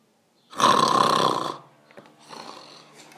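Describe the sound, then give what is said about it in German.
A person fakes a loud, rough snore, one long rasping inhale lasting about a second, followed by a quieter breathy exhale and faint shuffling sounds. “Äh, äh, Entschuldigung, bin kurz eingeschlafen.”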